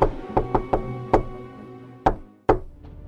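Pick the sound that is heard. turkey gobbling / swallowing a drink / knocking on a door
knocking on a door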